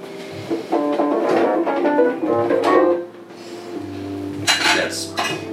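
Utensils clatter and scrape against a bowl as food is stirred, with a few brighter scraping bursts near the end, while a voice hums or murmurs underneath without clear words.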